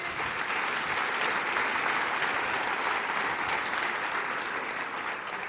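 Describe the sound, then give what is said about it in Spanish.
A church audience gives a morning round of applause to God, clapping together in a steady, dense burst at an even loudness for several seconds, with no voices rising above it. “haz un aplauso matutino a Dios?”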